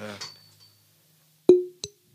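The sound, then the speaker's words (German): A brief voice at the start, then two sharp clinks of glasses touching in a toast, the first ringing out clearly and the second shorter and softer. “ähm, wir haben noch bitte. gar nicht angestoßen.”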